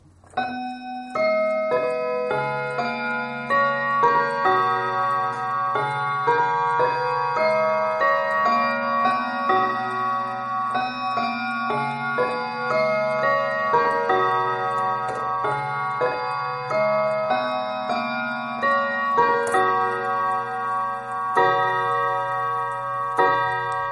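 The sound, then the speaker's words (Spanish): Bright, bell-like Whittington quarter chimes from a Victorian domestic clock ring out a steady sequence of overlapping tones, sustained and resonant, playing a melodic quarter-hour pattern with no talking. “Aparte de encontrarlos, estos cuartos de Whittington, en muchas iglesias, es muy popular entre los relojes domésticos del periodo victoriano.”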